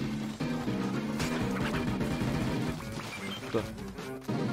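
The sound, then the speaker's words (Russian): Video game soundtrack music plays continuously and fairly loud, with layered sustained tones shifting in pitch and a few sharp percussive hits punctuating the mix. “То, что вы слышите, это саундтрек.”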